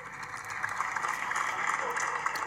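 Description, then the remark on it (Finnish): Many people across a whole city block clap together from their apartment balconies at eight in the evening to thank nurses and other healthcare staff, a dense, steady patter of applause echoing across the neighbourhood, with faint indistinct voices mixed into the crowd noise. “Täältä se kuulostaa, kun kokonainen kortteli tulee parvekkeelle Aina nämä on tosi liikuttavia.”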